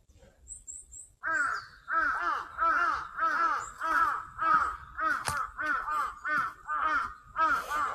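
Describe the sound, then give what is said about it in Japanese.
Crows caw over and over in a steady, loud series of harsh calls, about a dozen in quick succession, with faint high bird chirps briefly at the start. “カラスがうるさいな。”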